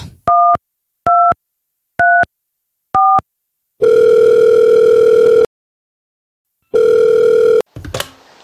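signal or alarm, telephone call ringing tone

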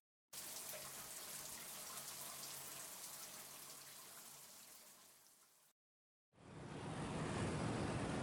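household object, shower water running

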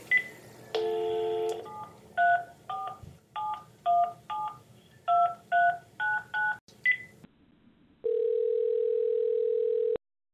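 signal or alarm, telephone number being dialed

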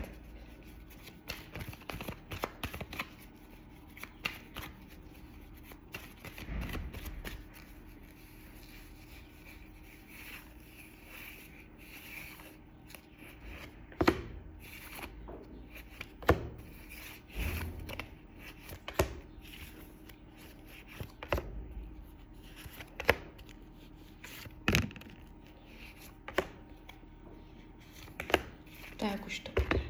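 household object, shuffling tarot cards

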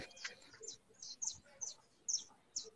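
bird, small bird singing

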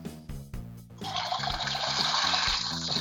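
household object, toilet flush

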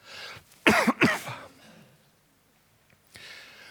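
human body sound, cough

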